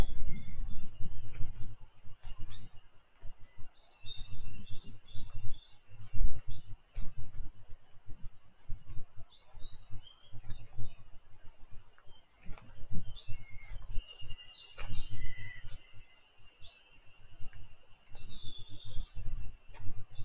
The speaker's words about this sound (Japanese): セミの声が聞こえますね。向こうの方で。